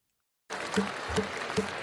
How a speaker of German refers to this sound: Applaus und Erleichterung bei den Delegierten in Delhi. Ich erkläre das Absichtspapier der G20 für angenommen verkündet Indiens Premier Modi zu Beginn der zweiten Sitzung.